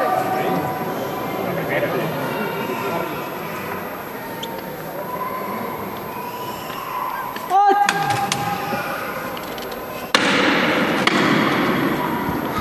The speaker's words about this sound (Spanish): Solo levanta que suena dos veces el martillo. Esta ha sido la levanta, ya la primera levanta en el interior del templo.